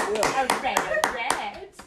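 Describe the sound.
Steady, evenly spaced hand claps, about one every quarter second, crisp and fairly loud, with a person's voice continuing over them throughout.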